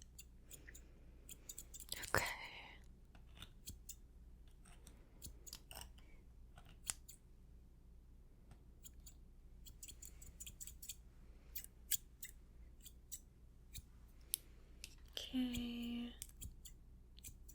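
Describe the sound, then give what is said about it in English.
Quiet snipping of scissors trimming a little hair around a beard before shaving, in quick irregular clusters, crisp metallic clicks repeating throughout, with a couple of louder brushing or rustling bursts near the start and end. “take long just to trim around your beard.”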